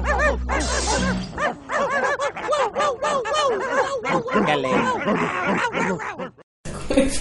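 Several dogs bark and yip in a rapid, overlapping stream, loud, continuing almost nonstop for several seconds before a brief pause and one last burst.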